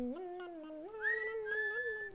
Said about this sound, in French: … chantonne et … sifflote.